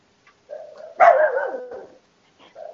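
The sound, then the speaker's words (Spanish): A dog named Frijola barks: a quieter lead-in swells into one loud, drawn-out, whining bark, then a brief pause and a short softer bark. No one speaks. “Frijola, cállate.”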